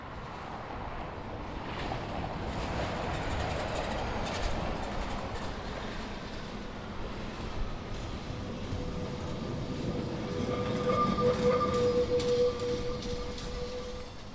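A tram rumbles steadily past through a city square, a broad mechanical roar that swells slightly before a thin metallic squeal rings out near the end. No voices.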